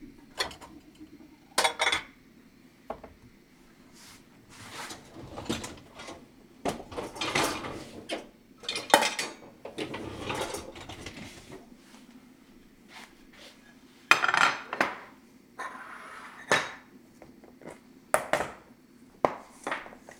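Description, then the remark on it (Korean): Kitchen handling sounds: irregular clinks, knocks and soft scrapes of dishes and containers as Korean side dishes are taken out one by one and set onto a large plate, with brief quiet gaps and no talking. “반찬은 큰 접시에다가”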